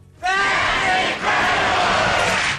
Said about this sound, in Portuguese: um maravilhoso, nada inútil pedaço de facto de, de televisão, sem dúvida digno uh, que toda uma plateia de indivíduos com golas compridas e calças à boca de sino gritasse em coro.